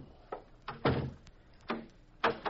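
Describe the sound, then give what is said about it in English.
An office door thuds shut, followed by a few short clicks and knocks that sound like a lock being turned. The sounds are fairly soft, with no voices. “Would you mind locking your door, Mr.”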